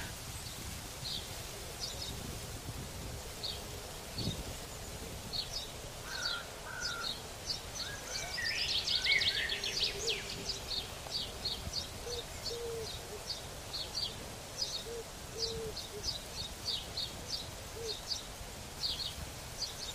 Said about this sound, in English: Ah. The the bird singing. oh, so amazing.